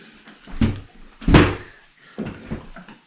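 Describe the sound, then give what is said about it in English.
A chair is slammed down hard on a floor, nearly onto someone's foot, a loud wooden clatter with a softer knock before it and another scraping thump after, no voices. “I just about slammed that chair on my foot.”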